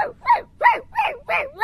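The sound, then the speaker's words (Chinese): A native mixed-breed dog barks frantically while chasing a shelter vehicle that has taken other animals, in a quick, steady series of five loud, mid-pitched yaps, each sharp and rising then falling, with no voices around them. “我奋力地追着车狂吠，驾驶说：“那只土狗也是想被抓吗？”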